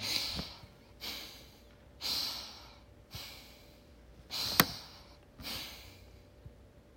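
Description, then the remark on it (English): Heavy, forceful, angry breathing through flaring nostrils, with about six loud breaths in a steady rhythm roughly a second apart and a sharp snort-like burst near the end, no talking. “Have you ever seen somebody who was so mad that they stood there and they were breathing real deeply and their nostrils would contract and expand.”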